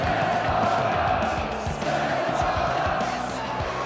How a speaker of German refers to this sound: Die Fans sind mit ihrer Geduld am Ende. Sie schreien ihren Frust lautstark heraus.